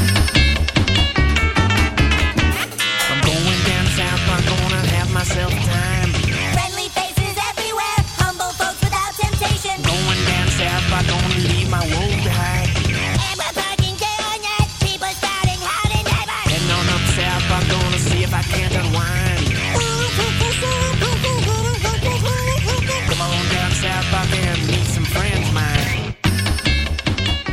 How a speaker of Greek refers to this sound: Το τραγουδάκι που ακούτε μας έρχεται από τη σειρά κινουμένων σχεδίων South Park. Για την ακρίβεια, το ηχογραφήσαμε από το πρώτο επεισόδιο του 19ου κύκλου.